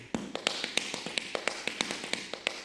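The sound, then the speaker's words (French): Rapid, crisp metallic taps from the tap dance shoes of a choreographer and tap dancer from Bordeaux on a hard floor, clicking in a lively uneven rhythm with sharp bright strikes, clear with no voices. “Ambiance, tap dance.”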